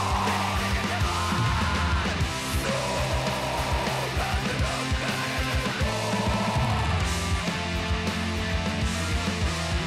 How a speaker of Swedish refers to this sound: Det här är liksom … med vässkrik